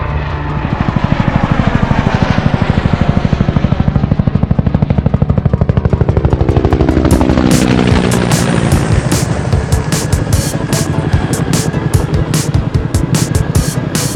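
A helicopter's rotor thumps steadily and loudly, a dense whirring drone with rapid rhythmic chopping and a rising engine whine, continuing without pause and with no voices.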